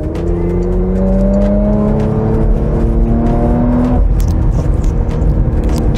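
A Porsche Macan SUV engine roars loudly as it accelerates, revving above 4,000 rpm, its pitch climbing steadily in rising harmonic sweeps before briefly dropping at a gear change, and building again.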